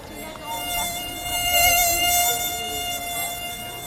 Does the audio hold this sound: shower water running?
no